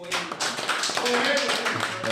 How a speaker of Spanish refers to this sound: Mi gente, un aplauso para mi hermano